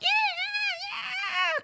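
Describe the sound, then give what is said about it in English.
A person imitates a mouse screaming, a shrill, squeaky, high-pitched wavering squeal held for under two seconds, loud, with a brief break in the middle. “but this mouse i've never heard a mouse screaming before and this mouse was like”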